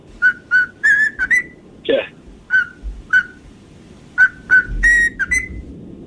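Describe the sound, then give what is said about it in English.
A cockatoo whistles a run of short, bright, rising notes in quick bursts, broken midway by one harsh, raspy squawk before the whistled phrases resume over a low background hum. “let's name that cockatoo.”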